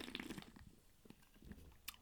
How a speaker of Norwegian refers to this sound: Men eh, nå skal jeg drikke vann, jeg. Det blir ålreit, da.